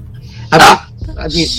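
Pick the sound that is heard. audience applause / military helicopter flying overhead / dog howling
dog howling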